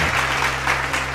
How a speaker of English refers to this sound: That clapping is very loud. Is it loud? Is it louder than normal? Uh, yeah, I could barely hear what you were saying.